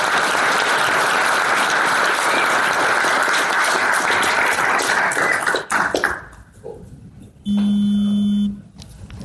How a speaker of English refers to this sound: Let's have a big round of applause for Phil.